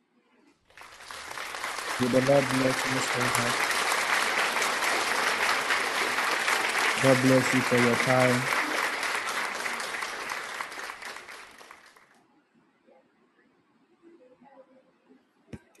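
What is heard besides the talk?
audience clapping hands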